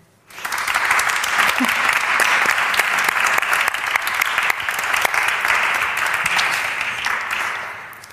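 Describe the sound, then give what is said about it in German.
An audience bursts into sustained applause welcoming Elisa Chouard-Dusapon onto the stage, a dense wash of many hands clapping steadily for about eight seconds before gradually thinning toward the end. “Aber begrüßen wir zunächst mit einem ganz herzlichen Applaus Elisa Chouard-Dusapon bei uns auf der Bühne.”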